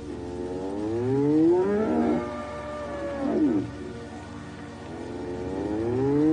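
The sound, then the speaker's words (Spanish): A deep, rumbling roar erupts close by, followed by several more rising and falling growling calls, loud and sustained with brief pauses between them, and no voices. “Fue cuando un repentino rugido en las cercanías nos puso en alerta tanto a los animales como a nosotros.”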